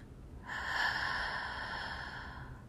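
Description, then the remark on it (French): A long, steady breath drawn in through the mouth while tightening the throat, airy, starting after a brief quiet moment and holding for about two seconds with no talking, during a breathing exercise. “À nouveau, on inspire par la bouche, on aspire l'air”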